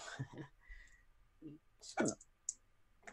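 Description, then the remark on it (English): Wedding dice clatter on a tabletop in a few sharp, quick clicks, with one louder knock near the end, while muffled voices murmur faintly in the background. “Oh, right, because those are the wedding dice.”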